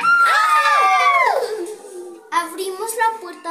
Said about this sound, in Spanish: Cuando íbamos por el pasillo escuchamos unos gritos.